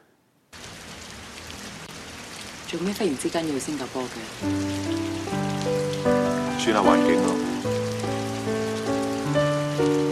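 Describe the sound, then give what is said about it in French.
Steady rain hisses throughout in a romantic dialogue scene from the film In the Mood for Love. A voice speaks briefly near the start, then slow melodic music rises over the constant downpour. “Sous la pluie, on avoue ses sentiments.”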